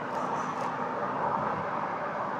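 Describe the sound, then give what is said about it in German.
A steady, unbroken rumble of car interior noise, a low road and engine drone filling the cabin at moderate level with no talking over it. “Ich hoffe, dass mein Gesabbel, das ich jetzt gerade rausstammel hier im Auto, nicht auch langweilig lang ist.”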